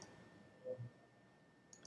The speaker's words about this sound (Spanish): voy a hacer clic secundario sobre el segundo objeto oprimiendo la tecla Shift.